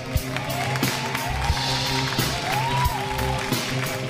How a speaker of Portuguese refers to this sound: Então, sem mais delongas, ele já está no palco. Aplausos para o padre Júlio Lancelotti.